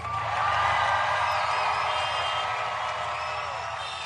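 A large crowd cheers and applauds loudly and steadily, a dense wash of shouts and clapping filling the space throughout with no single voice standing out.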